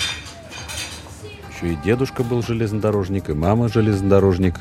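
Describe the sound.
Cutlery and dishes clink in a train's dining car late in the evening as the train rolls through the Czech Republic, a scattering of light, bright metallic taps at first, then continuing faintly beneath a man's voice as he begins talking.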